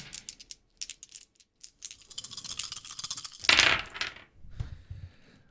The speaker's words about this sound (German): Vier sechsseitige Würfel und die werden gewürfelt und der kleinste Würfelwurf wird weggenommen.